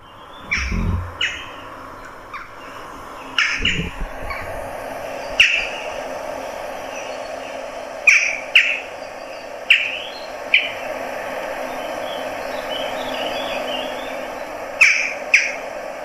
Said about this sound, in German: ist die Dole und ähm, da haben auch viele in Holland immer gedacht, das wären Möwen.